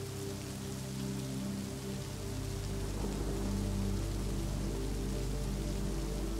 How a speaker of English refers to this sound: Observing the approaching heavier clouds, the rain becomes heavier and the rumbles of thunder more frequent.